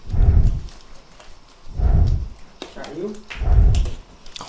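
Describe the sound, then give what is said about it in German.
A jaguar, just sedated by researchers so they can fit it with a transmitter collar, breathes heavily: three deep, rumbling, low-pitched breaths repeat at a slow, even pace, each swelling loudly and then fading into quieter, rasping air between them. “Ist das ein schwer atmender Jaguar?”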